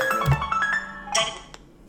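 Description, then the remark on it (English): A FaceTime incoming call ringtone plays on an iPhone, a short run of bright electronic melody notes ringing out clearly with no one talking, punctuated by a couple of soft clicks. “Okay, iPhone's ringing. FaceTime. FaceTime's ringing.”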